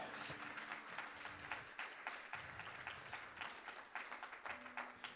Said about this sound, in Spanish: Alguien que le dé un aplauso al Señor.